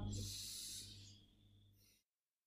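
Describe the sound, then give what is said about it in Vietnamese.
A single deep, airy breath taken by a person with a hand placed on the chest, a soft breathy hiss lasting about two seconds that fades out, followed by silence. “đặt tay lên trước ngực của mình hết một hơi thật sâu”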